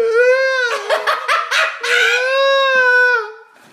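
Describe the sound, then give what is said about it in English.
A person imitates the crying meow of Cooper, a pet cat that walks around the house crying: one long, loud wail lasting several seconds, rough and strained in the middle before trailing off into a plaintive tone. “This cat is like a newborn. Cooper just wants to walk around crying.”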